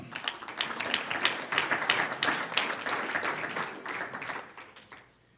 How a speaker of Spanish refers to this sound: ¿Cuántos dicen amén? Un aplauso al Señor.